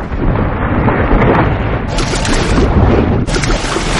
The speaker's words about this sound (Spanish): Las turbulencias arrastran al libro. La fuerte corriente impulsa a Remy hacia otro túnel.